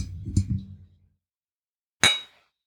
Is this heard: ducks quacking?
no